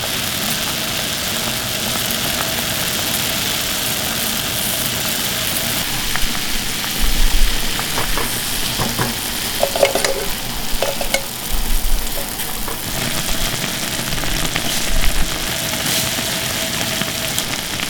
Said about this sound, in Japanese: 今朝はこの季節に食べたい鍋焼きうどんのいい音